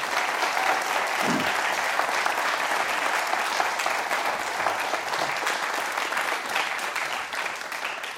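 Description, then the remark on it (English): An audience claps for three guests who shared their stories, in a sustained, dense round of applause that stays loud and steady for about eight seconds before easing slightly at the end. “I'll give them another round of applause before they go.”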